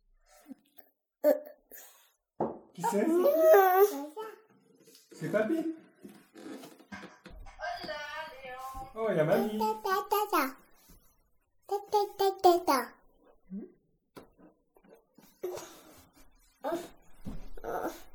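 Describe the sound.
A young child, asked how the dog goes, imitates a dog barking with several high, strained woof-like yelps in short bursts, with brief spoken voices between them.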